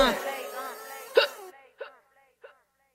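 Three short, sharp hiccups spaced about half a second apart, the first landing over the tail of a brief vocal passage and the last two alone in near silence.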